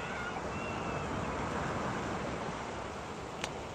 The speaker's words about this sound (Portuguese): Aqui a corrente não está muito forte não, estava ali onde eu estava, eu já tinha saído na verdade da entrada da... da a, a, a CBO, o mar já está chegando aqui de novo onde eu estou, o maré está subindo ainda, né?